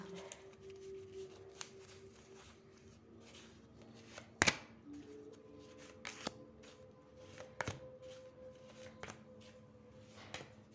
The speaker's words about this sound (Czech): Tak moment. Tak už mě padají karty z balíčku. Tak se na to podíváme.